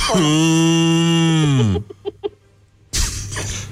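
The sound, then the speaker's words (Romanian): A cow cough sound effect: a cow lets out a long, loud, low bellow that drops in pitch at the end, then two short, sharp cough-like bursts, followed by a brief rush of breathy noise. “Și uh, încă o tuse de vacă”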